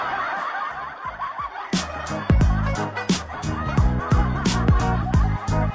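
A hen clucks in a quick, steady series of about a dozen sharp, loud calls, preceded by a softer stretch of low, murmuring noise.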